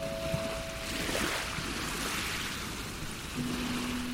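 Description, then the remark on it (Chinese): Ocean waves make a steady, continuous rushing wash with no voices, the surf swelling slightly around the middle, while a faint low mechanical hum drones beneath. “我听到了大海的呼唤”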